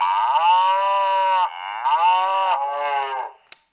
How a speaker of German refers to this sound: Die muhende Kamera.